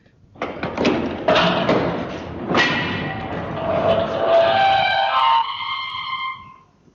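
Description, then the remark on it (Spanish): A massive solid iron door, armoured like the copper-lined vault it guards, creaks as it turns on its hinges: a few dull clunks at the start, then a long, loud, sharp, strained squeal that rises and wavers before fading, with no talking. “Su inmensa pesadumbre producía un inusitado y agudo ruido chirriante cuando giraba sobre sus goznes.”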